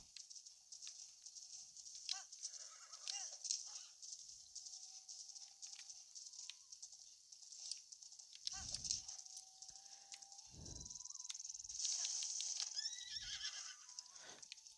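A horse whinnies amid a steady clip-clop of hooves, with a few heavier thuds near the end and a faint high hiss running underneath; no one speaks.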